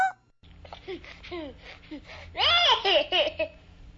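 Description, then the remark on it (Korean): A baby's crying, apparently imitated by a voice: short whimpering bursts build into a loud, wavering wail near the end, clear, with faint room noise beneath. “어, 애 울어요.”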